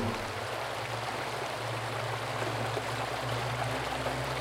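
The La Leona River flows steadily with a continuous rushing, burbling wash of water, fairly loud, with no pauses or voices and a faint low rumble beneath.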